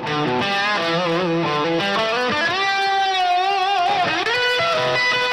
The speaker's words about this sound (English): nice guitar solo. Let's just listen to that for a bit.